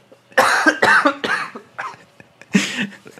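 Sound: coughing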